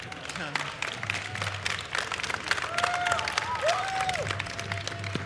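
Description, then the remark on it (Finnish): Audience applause and cheering at a Saturday event attended by 36,000 people that day fill the whole clip, a dense, steady wash of clapping with scattered whistles and shouts rising over it, holding strong throughout. “Se on aplodien paikka.”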